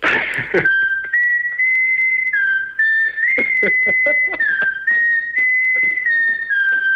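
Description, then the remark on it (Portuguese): A whistle lollipop plays a well-known guitar riff, its thin, steady pitch stepping up and down in short phrases, loud, with a brief clattery burst at the start. “um indivíduo registado no YouTube, sabe tocar usando um chupa-chupa de apito. …”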